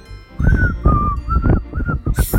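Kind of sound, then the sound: human body sound, person whistling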